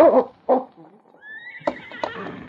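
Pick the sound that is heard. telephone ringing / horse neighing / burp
horse neighing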